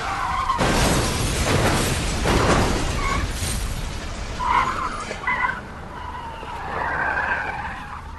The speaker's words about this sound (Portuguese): O carro vai se fundindo ao negrume que engole a estrada. As rodas giram em insana velocidade, tornam-se vórtices.